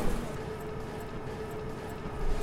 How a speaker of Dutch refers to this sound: Je hoort nu de lieren eh, trekken, dus je zal hem wel naar buiten zien gaan.